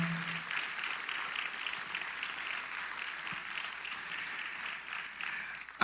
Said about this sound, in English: If you did something, come on, let's give yourselves as well as others a round of applause.